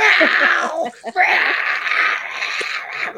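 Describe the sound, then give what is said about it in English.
A person imitates a cat yowling in heat: a long, wavering, nasal wail that breaks briefly near the middle, then resumes and drags on, loud. “Um, you know, you've seen a cat with this booty up in the air on the whole”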